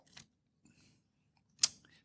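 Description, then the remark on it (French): Dry paper rustling and crinkling as a hand stirs through loose paper slips in a bowl: a soft scrape, a quieter shuffle, then a sharper crisp crackle near the end. “C'est ce que là, vous le voyez pas, mais dans, il y a à peu près un million de papiers dans mon bol qui...”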